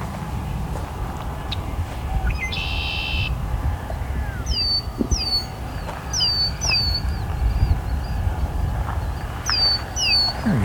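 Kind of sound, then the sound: bird, red-winged blackbirds calling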